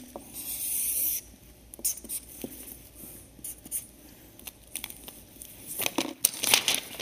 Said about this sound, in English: Let's say this piece of paper is, is space, okay? I'm going to draw a line.